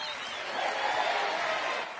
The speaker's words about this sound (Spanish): Un aplauso.